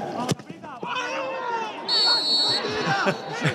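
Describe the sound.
A sharp thud, then a player's shrill scream after a hard foul rises out of noisy crowd chatter and shouting on a sports pitch, in the third minute of a Sunday 8 a.m. match, with voices continuing around it.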